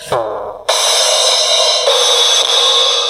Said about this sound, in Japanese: そしてドラムドラムでもこれは多分リズムああ、その、後ろで鳴ってくれる。音かどうだろうじゃあドラムからやってみよう。ええお、ええお、おたまちゃんからドラムの音がする。